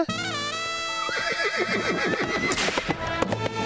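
A horse whinnies loudly, a shrill neigh that trembles and wavers downward in pitch over a few seconds, heard on its own with no talking.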